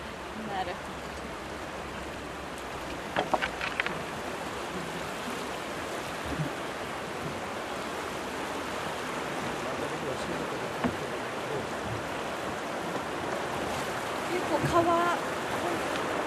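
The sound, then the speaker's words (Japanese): River water sloshes and laps steadily against a boat moving quickly along a shallow river with a visible stony bed, in a broad, continuous wash, with a few brief knocks and splashes standing out now and then. “波が波っていうのかな水がチャプンチャプンって割と荒い感じにも見えますねもっと静かなのかと思ってました進むスピードも私が想像してたより速いですね”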